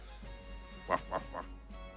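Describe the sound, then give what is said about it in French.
A person imitates a small dog with three quick, whiny yips in a row, fairly soft, against a quiet background hum with no other talking. “Pourquoi tu fais le chien Je sais pas, j'ai envie.”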